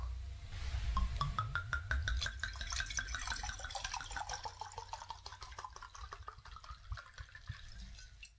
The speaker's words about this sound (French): Il versa deux verres de vin, comme s'il manipulait de l'or.